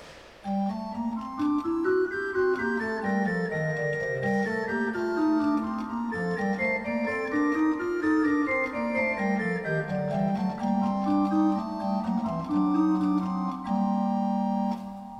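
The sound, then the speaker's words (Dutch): Scale figures played one line at a time, smooth sustained notes stepping up and then back down in repeated arcs, steady and fairly loud throughout, with no talking. “Toonladderfiguren apart gespeeld klinken dan zo.”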